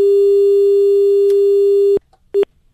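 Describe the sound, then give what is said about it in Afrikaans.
A telephone busy tone after a dropped call: a loud, steady low-pitched hum holds for about two seconds, cuts off, then one short matching beep follows a pause. “Oh, daar verloor ek vir Elsa.”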